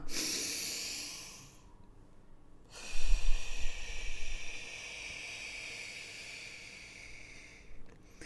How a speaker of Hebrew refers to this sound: היום אני יודעת שאני צריכה לעצור מדי פעם, כמה פעמים במהלך היום, וכמו כרגע אני אעשה את זה, אני נוטלת נשימה ארוכה.